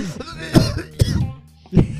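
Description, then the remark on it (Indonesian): Three sharp coughs spaced unevenly over two seconds, each a harsh burst of breath with a rough throaty edge, with no talking in between. “sorry, sorry, sorry. Yang Batuk”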